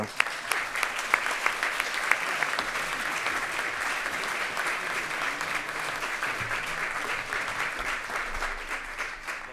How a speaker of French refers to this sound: Merci d'applaudir comme il se doit Chantal Mouffe.